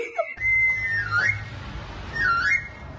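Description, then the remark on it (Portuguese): A person whistles an imitation of an ice-cream vendor's flute call, as played while passing with the cart, a long steady tone that dips and rises, then repeats the same sliding phrase after a pause, with a low rumble underneath. “Passando com o carrinho, assobia na flauta, assim, né?”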